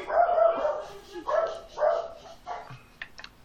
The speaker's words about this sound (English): sorry about the dog